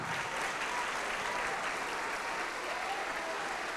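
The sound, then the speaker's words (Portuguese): Sustained applause from a large church audience clapping in praise of Jesus, a dense steady wash of clapping that holds at an even, fairly loud level for the whole stretch without pause. “E ele é digno de receber a melhor salva de palmas.”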